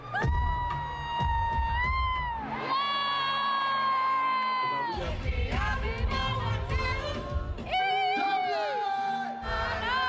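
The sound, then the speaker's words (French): A concert crowd screams and cheers continuously, with high-pitched shrieks rising and falling in waves over a dense roar, loud throughout. “Euh, je vous ai fait un petit résumé sonore de ma soirée.”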